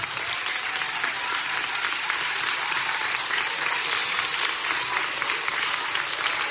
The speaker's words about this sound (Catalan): Per tant, un fort aplaudiment també per totes aquestes persones.